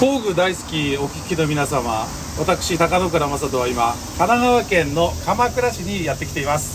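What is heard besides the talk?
cicadas chirping outdoors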